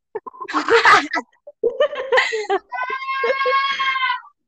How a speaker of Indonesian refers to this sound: Iya, jadi kayak lu dengar gak sih ada orang yang teriak?